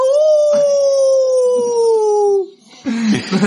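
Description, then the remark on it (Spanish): A person imitates a wolf howl: one loud, sustained note that slowly slides downward for about two and a half seconds, then breaks off into laughter and chatter. “Hay una de lobo bien chévere. Manja. Sí, para que tú estés así. ¡Au!”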